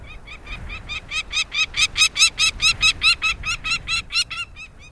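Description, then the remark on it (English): A peregrine falcon gives a rapid, harsh series of cackling calls, around twenty notes in a steady rhythm that swells louder and then holds, with no other sounds. “Northern nesting species of falcons, like this peregrine we're hearing, move southward closer to their many admiring observers.”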